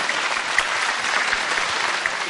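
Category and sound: crowd, audience applause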